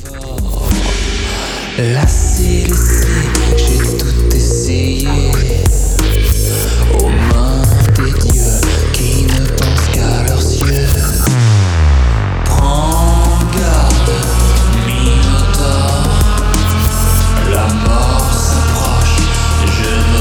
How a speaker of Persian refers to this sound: موتور رو میشنوید از ویو